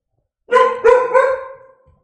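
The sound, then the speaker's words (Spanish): An angry dog barks three times in quick succession, loud, each bark harmonically rich and trailing into a short fading whine, with no one speaking. “se ha enfadado hasta el perro.”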